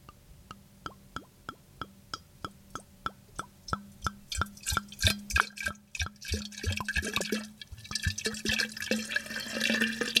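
Aged wine with sediment pours from the bottle into a decanter with steady, rhythmic glugs from the bottle neck, then settles into a continuous, splashy stream near the end; pouring stops with about two inches left in the bottle to keep the sediment in. Clear, with no talking.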